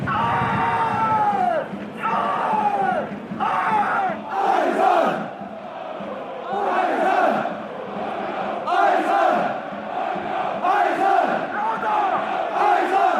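A large crowd of football ultras chants in unison in a stadium, driven by chant leaders with megaphones standing on two small platforms, loud and rhythmic, with repeated phrases surging and dipping in a steady cadence and many voices blending into a roaring mass.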